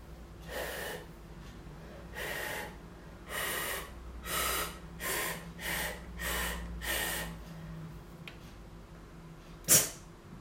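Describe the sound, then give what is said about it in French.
Seven short, breathy puffs of air blown into a homemade transverse flute with newly made note holes, mostly airy hiss with only a faint whistle of pitch, evenly spaced, then a sharp click near the end. “maintenant on va venir faire les trous pour les notes. un là. Ok, testons.”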